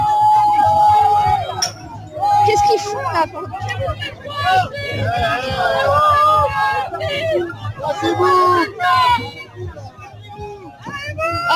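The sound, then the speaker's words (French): A loud, agitated crowd clamors during a police charge, with overlapping shouts and raised voices surging throughout, and people exclaiming over the continuous commotion. “mais ah merde, il y a une charge là Putain Waouh ah, bah, euh, ah il a perdu charge son ciblée, Charge ciblée”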